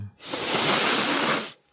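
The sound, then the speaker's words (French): One long, forceful sniff through the nose, a steady breathy hiss lasting just over a second before cutting off, with no talking. “Oh, vous, êtes triste, Père Noël Je crois pas que ce soit un reniflement de tristesse.”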